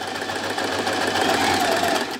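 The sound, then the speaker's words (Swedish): A sewing machine stitches a seam, running steadily, its rapid mechanical stitching filling the moment with a continuous buzzing rattle before stopping abruptly at the end. “Ett ögonblick, jag ska bara sy färdigt en, en söm här.”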